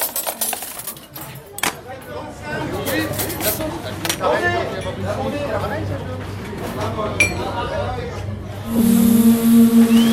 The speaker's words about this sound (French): la cantine.